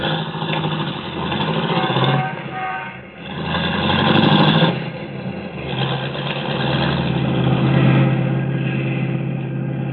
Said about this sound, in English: Then she gets back into the car, and they drive off.